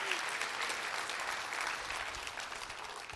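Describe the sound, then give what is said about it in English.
A crowd of people clapping their hands together, a dense, steady wash of applause that stays loud and even throughout, with no voices rising above it. “Come on, clap your hands and rejoice and say, I will receive eternal life from Him.”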